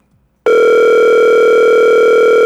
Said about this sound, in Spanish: que le estoy llamando al aire que coja el teléfono.